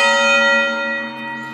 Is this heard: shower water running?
no